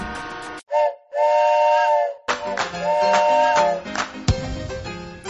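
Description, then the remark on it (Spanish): A loud, sustained steam train whistle sounds in two long blasts, followed by hissing steam, clanking metal and rumbling machinery as a train pulls into a station. “Al fin, Llegó el tren que esperaba la señora.”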